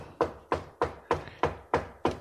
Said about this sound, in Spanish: las personas llamadas Patricio Barton y Gillespie acaban de golpear la puerta